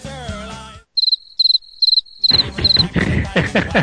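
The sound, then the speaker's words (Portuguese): Crickets chirp in a steady rhythm of short, high trilled bursts, about five in a row, clear and fairly loud, with a brief tonal sound before and a busier wash of sound rising after. “Cara, cri, cri, cri.”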